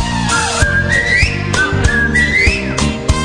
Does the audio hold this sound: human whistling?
yes